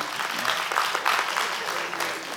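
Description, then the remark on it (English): An audience applauds steadily, a dense wash of many hands clapping at once with no pauses. The clapping stays fairly even in volume throughout, with a faint murmur of voices mixed in. “all the brothers not clapping yet.”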